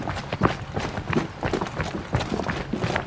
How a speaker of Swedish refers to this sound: Men eh, vi joggar lite då? Men vi joggar lite då. Ja.